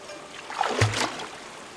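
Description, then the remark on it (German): A single soft splash of water against a ferry boat nearing a landing stage rises briefly near the middle, over a quiet background of gently lapping, calming water. “Das Wasser wird ruhiger. Nach einer Weile erreichen wir endlich eine Anlegestelle.”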